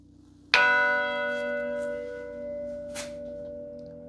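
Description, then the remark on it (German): The large, low bell of a set of three church bells is struck once, loud, its deep metallic tone ringing out and slowly decaying with rich sustained overtones; a faint second strike shimmers near the end. “Glocken werden ja schon ganz lange in Kirchen verwendet, in Glockentürmen.”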